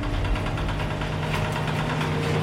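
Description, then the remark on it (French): Winches on a fishing boat haul up the cable that holds the net, producing a steady, loud mechanical drone with a deep rumbling hum and faint rattling vibration, continuous throughout with no voices. “Là, ce qu'on entend, c'est les treuils qui remontent le câble qui tient euh, le filet.”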